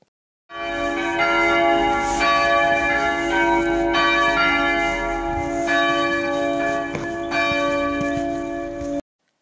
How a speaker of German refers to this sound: Die Glocken läuten. Darüber haben wir schon etwas von der Simone Feneberg gehört. Das Glockenläuten eint die Christen in aller Welt, ruft die Gläubigen zum Gottesdienst.